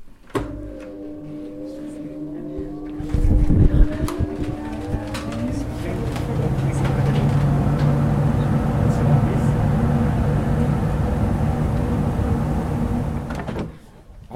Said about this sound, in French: Maintenant, on va mettre l'orgue en route et donc on va euh, démarrer euh, les moteurs qui vont donc euh, fournir le vent qui ensuite ira faire chanter les tuyaux.